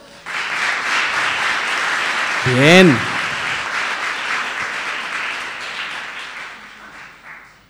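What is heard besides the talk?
audience applause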